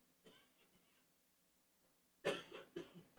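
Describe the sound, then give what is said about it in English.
After a stretch of near silence, a sudden burst of loud, harsh coughing breaks out: a forceful hack followed quickly by a couple more rough coughs. “Ah, coughing fit.”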